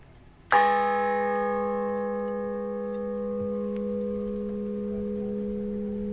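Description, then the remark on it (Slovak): A large church bell named Pana Mária, weighing 535 kg, is struck once, and its deep, layered tone rings on steadily, slowly decaying over several seconds with no one speaking. “Zvon svätý Michal má váhu 862 kg a druhý zvon Pana Mária má váhu 535 kg a na ten udriem teraz.”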